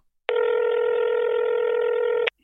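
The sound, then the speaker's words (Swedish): A single steady telephone ringing tone of an outgoing call to a man who does not know he is being called sounds for about two seconds, even and unbroken, then stops abruptly. It is clear and moderately loud, with no talking over it. “Och han vet, alltså han, vet, han har ingen aning om att vi ska ringa nu, så det här är liksom 100% äkta när Sveriges bästa telefonförsäljare ska eh, locka eh,”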